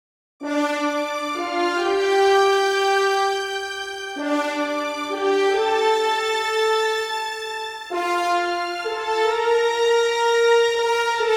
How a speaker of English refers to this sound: The violins 1 and the violins 2 playing one octave apart from each other and one octave higher than the horns. Just the violins they sound like this. And now the violins and the horns. That sounds like this.